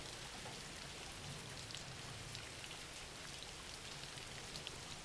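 Steady rain falls continuously, a dense hiss of drops with scattered brighter taps against a surface, fairly quiet and unchanging throughout, with no voices.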